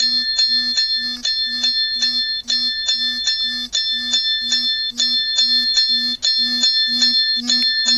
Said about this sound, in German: So, er vibriert und klingelt ganz heftig. Timer. Drei Minuten vergangen.